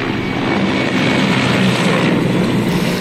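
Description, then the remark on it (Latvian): A steady, loud engine drone of firefighting aircraft flying overhead while fighting a wildfire, a broad continuous roar with a low rumble that holds constant throughout, with no voices present. “Dzēšanas darbos iesaistīti ne tikai lieli spēki uz zemes, bet arī vairākas lidmašīnas un helikopteri.”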